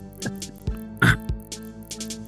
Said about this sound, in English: I can't stop coughing.